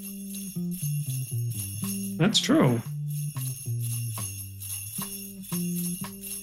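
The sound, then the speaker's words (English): A bright, steady jingle of sleigh bells shimmers on top of a non-Christmas rock song with sustained keyboard chords, and a man briefly speaks over the music partway through. “Not often you see hear sleigh bells on a non-Christmas song.”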